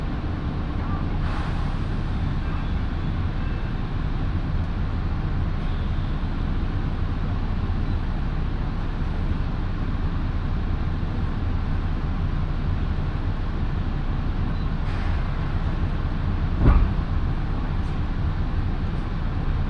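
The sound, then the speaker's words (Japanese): A one-man local train bound for Kofu, with rear-door boarding and front-door exit, running on rails, a steady, dense low rumble that holds evenly throughout, with a couple of faint clanks and one sharper knock near the end. “この列車は後ろ乗り前降りの甲府行きワンマン列車です”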